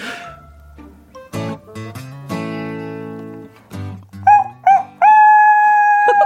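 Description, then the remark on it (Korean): A rooster crows, two short clipped calls followed by a long, loud, sustained crow with a rising start and steady high pitch, after a stretch of layered tonal, musical-sounding tones. “어, 어, 이거 닭 소리가 이것도 성악을 하는 닭 같구만.”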